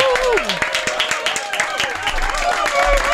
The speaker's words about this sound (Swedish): Och Johan Jureskog är i studion! applåder.